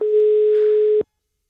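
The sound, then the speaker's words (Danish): A telephone ringback tone on an outgoing call: one steady, mid-pitched hum that holds for about a second and then cuts off into silence. No one speaks. “som vi prøver at ringe til nu.”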